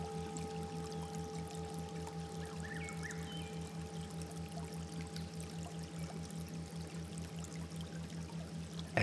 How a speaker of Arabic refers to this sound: أثناء استراحتك بلطف على الغصن ومن مسافة يمكنك أن تسمع صوت المياه قد يكون ينبوعا أو شلالا إن صوت المياه يساعدك أكثر فأكثر على الهبوط إلى درجة أعمق من الاسترخاء